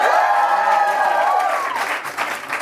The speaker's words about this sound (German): habt ihr das am Anfang gehört? Ja, wir haben einen neuen Jingle. Ich liebe ihn. Gefällt er euch?